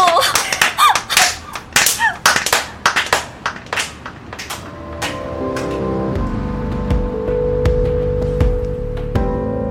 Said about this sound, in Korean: 양화대교 아래에 다다랐을 때 명주가 손뼉을 치자 박수 소리가 대교의 철골에 부딪혀 울렸다. 마치 한강을 가르는 다리가 함께 박수를 쳐주는 듯했다.